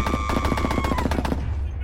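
A rapid, steady burst of automatic gunfire as a gunman shoots a woman 48 times, around ten sharp shots in quick succession over a low rumble, loud, then cutting off and fading.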